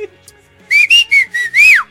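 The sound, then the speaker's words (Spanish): A person whistles a short signal call: four quick, steady notes followed by a longer note that rises and then slides down, loud with no one talking. “Y yo estoy chiflando, güey.”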